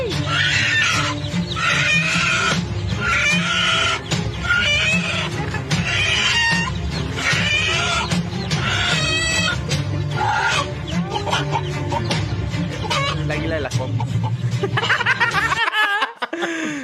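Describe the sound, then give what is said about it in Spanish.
Loud, busy clucking from a flock of chickens and running chicks, heard from a played video, bursts overlapping almost continuously above a steady low rumble, cutting off abruptly just before the end. “Mira, los pollitos corrieron en chinga, güey.”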